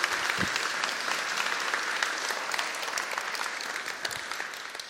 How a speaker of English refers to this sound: Let's work, give these guys a round of applause.